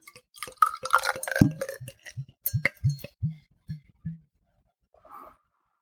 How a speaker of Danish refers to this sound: Og det her, det er jo lyden af, af øl, der bliver hældt op. Det er øh, en anarkist øl fra Royal Unibrew, eller Theodor Schütz, øh, som jo er et underbrand til Royal Unibrew.